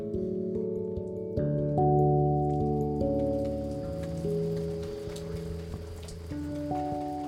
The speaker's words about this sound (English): It's raining as I make my way over to Jason's.